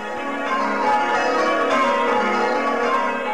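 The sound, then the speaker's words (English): Church bells in England's West Country ring simple rounds on a foggy evening, rung by bell ringers to prepare the bells; their overlapping tones blend into a steady, fairly loud wash of chimes with no voices present. “while his tweedy mates begin the simple rounds to prepare the bells,”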